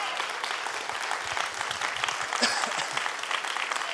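audience clapping

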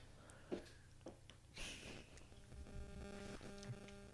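electrical interference hum

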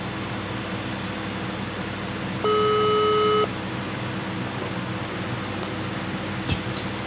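phone call ringing tone

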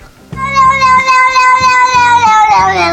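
cat meowing

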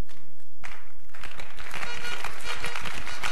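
audience clapping

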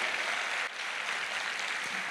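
audience applauding

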